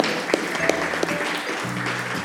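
A crowd claps steadily for a couple of seconds, a dense, even patter of many hands, with a few faint voices humming underneath.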